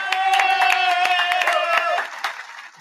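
An audience applauds a participant wearing a cowboy hat, with quick, dense clapping, a loud sustained cheer ringing over it, then the applause thins out and fades in the last moment.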